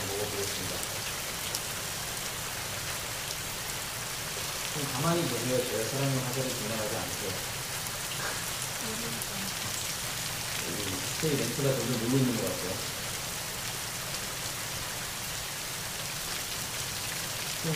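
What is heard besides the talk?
rain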